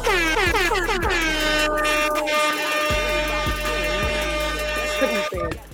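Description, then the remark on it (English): Loud, blaring air horn blasts sound in a rapid series of honks, stacked harmonic tones with sweeping pitch bends, continuous and forceful throughout the short burst. “It's only on a hit record you hear honks like that.”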